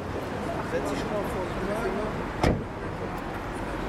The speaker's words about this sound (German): Ein älterer Mann steigt aus einem Taxi.